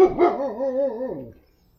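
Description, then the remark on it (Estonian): A dog gives one drawn-out, wavering bark that slides downward in pitch and fades after about a second, with no one talking. “mis see koera nimi oli?”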